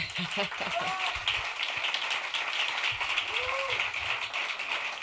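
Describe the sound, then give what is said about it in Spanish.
An audience applauds steadily throughout, a dense wash of clapping that stays fairly even in loudness, with a few brief voices and cheers rising over it, welcoming Mara Torres on the radio programme La Luna. “porque es un verdadero placer y por eso este impactante aplauso es bien merecido, porque hoy la Luna tiene el placer de reencontrarse con la gran Mara Torres.”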